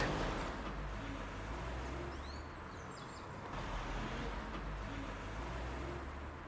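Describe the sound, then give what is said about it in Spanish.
A steady low rumble of a car driving along a road toward the municipality of Guaslala, with constant engine and tyre noise throughout. A few faint bird chirps rise briefly over the drone, and no one speaks. “Prepárense porque vamos a tomar carretera.”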